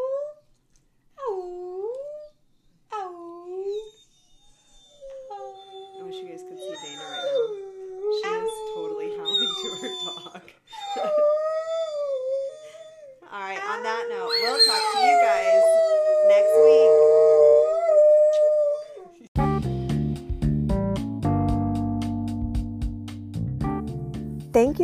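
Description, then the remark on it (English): A dog named Earl howls in long, wavering, rising-and-falling calls, joined by a person imitating the howl, building louder before abruptly giving way to music at the end. “Should we get him to howl?”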